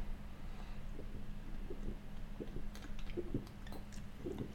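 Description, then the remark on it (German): Soft sips and faint swallowing sounds of someone drinking water during a pause, with a few small wet clicks toward the end and no one talking. “Dezente halt Trinkpause hier bitte einfügen.”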